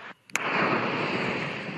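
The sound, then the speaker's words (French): Explosions during a full-scale Russian military troop exercise about 300 km from the Ukrainian border: a sudden sharp blast is followed by a loud, sustained roaring rumble, echoing and billowing outward. No voices are heard. “À coup d'explosion, l'armée montre les muscles, mais l'Ukraine sous pression.”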